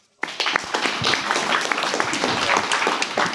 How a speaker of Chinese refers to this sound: 那我们把掌声送给我们下一位的分享嘉宾小马。